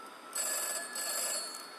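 A telephone rings with a bright, high-pitched electronic trill, two bursts in quick succession, steady, with no voices.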